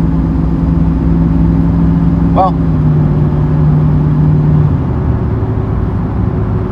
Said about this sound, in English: I lost my train of thought because someone passed another car in front of me. And oftentimes I get talking about the passing.